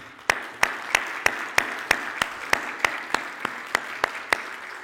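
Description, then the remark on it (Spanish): An audience applauds, settling into steady rhythmic clapping in unison, about three claps per second, sharp regular beats over a dense wash of scattered hand claps, with no one speaking. “Primero, un aplauso para el hermano César.”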